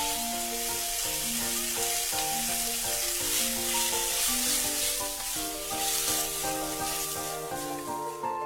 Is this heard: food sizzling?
yes